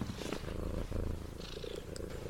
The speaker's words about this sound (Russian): Кстати, интересно, а слышно, как мурчит мой котик?